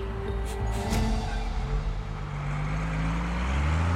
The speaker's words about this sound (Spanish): Sin pensarlo demasiado, sube a un autobús que lo llevará a la última estación del caso.